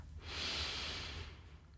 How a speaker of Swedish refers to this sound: Tar ett djupt andetag in. Andas ut, pustar ut. Och vi andas in för att upprepa.